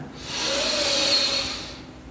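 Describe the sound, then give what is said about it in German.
A single deep breath drawn in during a guided meditation, a broad airy hiss that swells gradually, holds for over a second, then fades out. It sounds steady, with no talking. “Wir nehmen zusammen einen tiefen Atemzug und atmen ein.”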